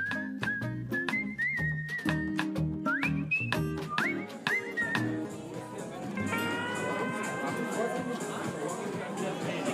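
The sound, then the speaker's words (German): Steady background chatter from an outdoor summer festival crowd at a medical center in Nassau in sunny weather, many voices blending into a hubbub as people eat, drink and listen to music, with a whistled or tooted melody over it in the first half. “Sie hören es schon im Hintergrund. Wir stehen hier auf dem Sommerfest des Medical Center.”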